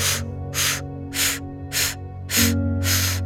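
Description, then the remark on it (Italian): A series of short, sharp breathy bursts, about six evenly spaced puffs of air over a faint low hum, during a breathing exercise: an inhale through the nose, then five short exhalations blown out through the mouth. “Inspiro naso, butto fuori bocca 5 brevi espirazioni.”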